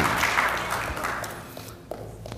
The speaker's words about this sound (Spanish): Dele un aplauso a Jesús porque él se lo merece. Bendito el nombre de Jesús. Gloria a Cristo.